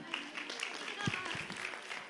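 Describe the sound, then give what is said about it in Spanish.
A group of children applauding: dense, steady clapping that fills about two seconds at moderate loudness, with a few voices mixed faintly into the clatter. “Muy bien, un aplauso, por favor.”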